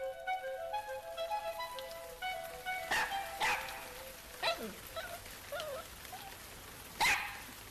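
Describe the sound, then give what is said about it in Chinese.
A few short, hissing bursts of water sprayed from a watering can to make a rainbow come in separate spurts over a soft melodic tune, with a dog barking and yelping in between. “于是他拿来了一个喷壶，装上水。”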